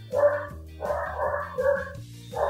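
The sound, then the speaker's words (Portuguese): A small dog barks and yaps in quick, high-pitched bursts, fairly loud, with a few short pauses between the runs of barking. “se vocês ouvirem uh, um cachorrinho latindo”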